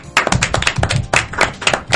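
A brief burst of hand clapping, a handful of people applauding with dense, overlapping sharp claps at a steady, lively pace, with no one speaking.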